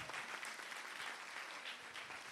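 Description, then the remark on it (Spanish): An audience at a sermon claps steadily for the Lord, dense overlapping hand claps forming a continuous, bright wash of applause with no voices standing out. “Si usted lo cree, den un aplauso fuerte al Señor.”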